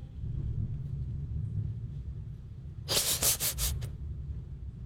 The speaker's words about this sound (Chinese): 哎呀，我们这里在闪电，好闪哦，吓死我了！听到了吗？听到打雷了吗？